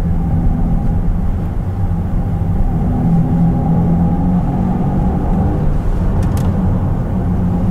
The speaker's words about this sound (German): Also ich bin grundsätzlich kein Fan von künstlichem Motorsound, weder im Verbrenner noch im E-Auto. Das Gute ist, das Ganze auch abschalten.